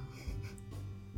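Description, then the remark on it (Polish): A dog barks a few times, muffled and fairly faint, with a steady low hum underneath and no talking. “Nie wiem, czy słyszycie, że pies szczeka, bo szczeka.”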